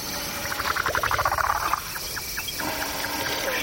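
Night-time savanna ambience on the Masai Mara Plain in Kenya, not far from Mount Kilimanjaro, recorded by Chris Watson where a family of elephants had bedded down in rough grassland: a steady high insect-like hiss, a burst of rapid, rattling bird-like calls in the first half, then fainter scattered calls.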